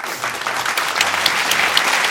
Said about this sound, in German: Also ja. wollte ich mich ganz herzlich äh, für bedanken, dass Sie uns da hier einen Einblick gegeben haben. Auch nochmal gerne einen Applaus.